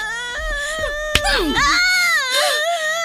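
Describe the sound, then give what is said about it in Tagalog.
A child wails loudly, a sustained tearful cry whose pitch rises and falls in sobbing waves, with a brief sharp snap partway through. “Mahal, ba't umiiyak ang anak natin?”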